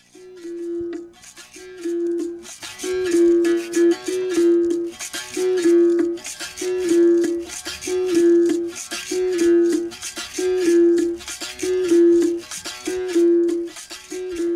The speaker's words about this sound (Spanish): Lleva un kashishi por lo general que es como un cesto de mimbre con semillas adentro. O sea, si ¿sí escuchan ahí como unas semillitas. A ver, me voy a callar para escucharlo.